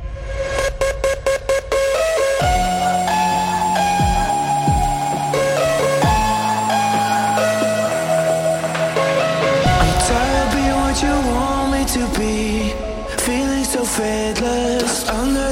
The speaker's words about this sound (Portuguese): Só que eles levaram ao extremo os kicks dessa música e você vai conferir o que é distorção de verdade agora.